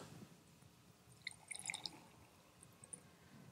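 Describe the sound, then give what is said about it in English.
Water is poured from a jar into a cup, a brief burst of faint, bright splashes and drips for about half a second, set against a quiet background with no talking. “Suddenly, the cup is not around water, but now the water is in the cup.”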